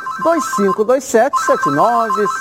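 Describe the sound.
A telephone rings steadily in the background, its electronic tone held at an even pitch while a voice talks loudly over it in the foreground.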